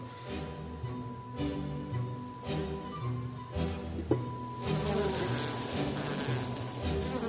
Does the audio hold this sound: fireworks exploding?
no